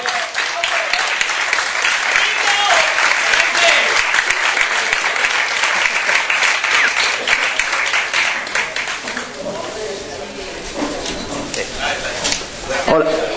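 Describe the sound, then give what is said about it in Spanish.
A live audience bursts into sustained applause as the group from OTV is asked to take their places for the first crossover, dense crackling claps filling the room for about ten seconds before thinning out, with some voices mixed in toward the end. “Un aplauso, por favor.”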